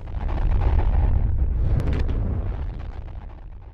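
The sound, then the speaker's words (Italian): A huge explosion boom, heard from a distance about a minute and a half after a blast that became a huge ball of smoke shot through with flashes of fire, rolls into a deep, thunderlike rumble that stays loud and heavy for several seconds before easing slightly, with no voices present. “Dopo un minuto e mezzo sentì un enorme boato. Poi un rombo come di tuono che mi convinse di ciò che avevo visto.”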